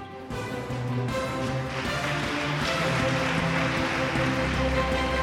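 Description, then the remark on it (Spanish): Loud, sustained applause from an audience for two presenters at the end of a radio news segment breaks out after a brief pause and keeps going steadily, a dense crackle of many hands clapping together, with a faint musical hum beneath. “un aplauso muy fuerte para ellos, muchísimas gracias.”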